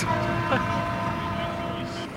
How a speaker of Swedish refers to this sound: Ja, nu tutar det här det är franska landslaget som ska lämna eh, och jag vet att svenska landslaget ska åka alldeles strax.